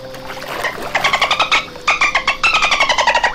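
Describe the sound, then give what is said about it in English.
Someone imitates a dolphin with rapid, high, squeaky chattering clicks in two quick bursts, fairly loud, with no other talking. “Now here's a here's a dolphin.”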